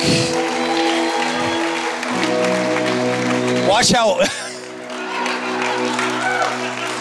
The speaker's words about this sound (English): Why don't you give the Lord a big old clap? I'm done for the night, but why don't you give the Lord a big old clap?